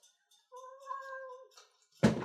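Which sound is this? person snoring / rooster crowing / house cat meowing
house cat meowing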